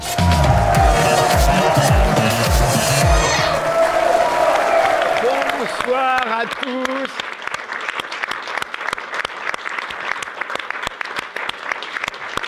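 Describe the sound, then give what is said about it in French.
An audience applauds loudly and steadily at the special TVL television broadcast Snipers du net, the dense clapping running the whole length after an opening swell of crowd noise; a man briefly speaks a greeting over it. “Bref, je vous demande de leur faire un triomphe pour cette émission spéciale Snipers du net.”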